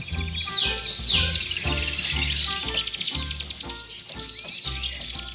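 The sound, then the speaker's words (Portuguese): A dense chatter of many small birds chirping and twittering at once, steady and fairly loud throughout, over a low rhythmic musical pulse underneath. “Lembra estradas, andarilhos e passarinhos em bando.”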